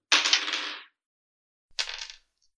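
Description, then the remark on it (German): Dice clatter across a hard tabletop in two short rattling bursts, rolled for a Dexterity saving throw against Difficulty Class 13, the first longer and louder, the second briefer after a pause, with no talking. “Und ich hole mal die Würfel raus.”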